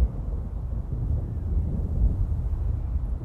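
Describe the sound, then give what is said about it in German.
A deep, continuous rumbling and thundering roar, heard while climbing a mountain range, fills the whole stretch, heavy and steady with slight swells in loudness, with no voices present. “Mittlerweile haben sie schon viele Meter des Gebirges erklommen und das Dröhnen und Donnern war nun noch deutlicher zu hören.”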